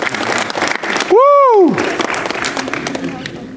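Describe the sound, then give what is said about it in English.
An audience applauds steadily, a dense patter of many hands clapping throughout, with one loud whooping cheer that rises and falls in pitch partway through. “Give them a big hand of applause.”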